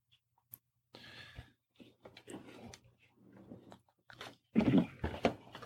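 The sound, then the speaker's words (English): Crunching as someone bites into and chews a crisp chocolate cookie, irregular crackly bursts building to a loud bite near the end, with soft mouth noises between. “With that cookie, and of course the delicious crunchy chocolate. Mm-hmm that's a crunchy cookie.”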